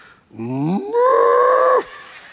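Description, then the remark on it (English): A person standing in a queue for the Space Mountain ride imitates a cow with a single loud, drawn-out moo, its pitch rising at the start and then holding steady for about a second and a half before cutting off. “I said, I feel like a cow. I'm being herded into Space Mountain.”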